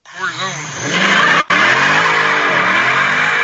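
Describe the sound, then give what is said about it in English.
The 392 V8 engine of a four-door Dodge Charger revs hard and climbs in pitch, cuts out for an instant, then roars steadily with screeching tire noise from a burnout, loud. “That is my brother's Dodge Charger 392 that he insisted I do a burnout in.”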